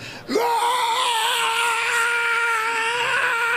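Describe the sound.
A voice imitates the nonstop screaming of a boy with an illness in his head, met in a Latin American country: one loud, sustained, high-pitched wail that rises sharply and then holds steady, wavering slightly, for several seconds without a break.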